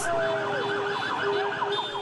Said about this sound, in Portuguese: Os torcedores tomaram as ruas de Belo Horizonte. Teve festa em frente à sede do clube. Carros e motos fizeram buzinaços.